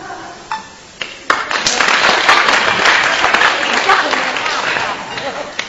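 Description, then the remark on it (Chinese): An audience breaks into applause: a few scattered claps at first, then dense, steady clapping that swells quickly and holds at a loud, even level to the end. “像来点掌声，不像当我抽风了啊。”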